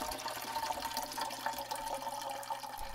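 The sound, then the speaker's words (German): Water pours steadily into a bathtub as a generous portion of bubble bath is added, a continuous splashing rush with no pauses, moderately loud, with no voices. “Ließ Wasser in seine Badewanne und schüttete eine ordentliche Portion Schaumbad dazu.”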